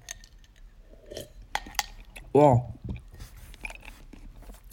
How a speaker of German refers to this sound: Und mir ist eiskalt und ich mache jetzt eine Eiswürfel-Challenge. Ich muss einen Eiswürfel in den Mund nehmen.